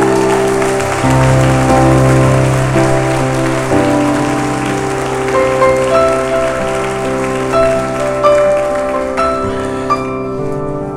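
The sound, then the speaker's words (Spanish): An audience applauds the Lord during a morning service, a dense wash of clapping that lasts the whole stretch, with sustained keyboard chords playing underneath and no one speaking. “Vamos, alguien se atreve a darle un aplauso al Señor en esta mañana.”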